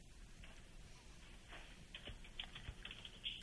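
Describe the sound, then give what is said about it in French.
Rapid keyboard typing, a steady run of light clicking keystrokes with a few louder taps near the end, with no voices. “J'entends pitonner.”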